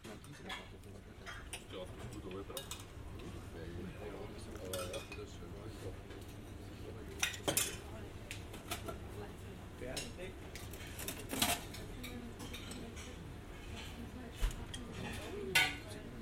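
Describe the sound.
Pots, dishes and cutlery clatter and clink in scattered, irregular bursts, a few sharper knocks standing out over a steady low kitchen hum and indistinct background voices.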